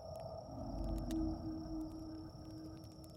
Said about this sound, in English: Yeah, I heard it that time. But you know, there are lots of harmless little critters that can growl like that. Well, a raccoon can make itself sound like a cougar about to pounce if it wants to.